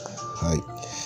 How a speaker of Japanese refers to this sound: 後ろでテレビが流れておりますのでちょっと音が入ってるかもしれませんテレビのスイッチを切る気力がありませんはい